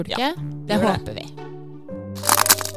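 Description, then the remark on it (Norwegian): A loud cracking sound effect, meant as the sound of the reading code cracking, bursts out as a brief, crunchy snap, with people talking around it. “Du, det var lyden av lesekoden som knakk.”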